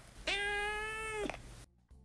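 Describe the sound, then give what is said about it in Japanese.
A cat in a good mood gives a single bright, contented meow lasting about a second, held at a steady mid pitch with a rich, clear tone, followed by quiet. No one speaks. “こんな感じでね明るい「うん」っていう感じで泣いてくれたりします”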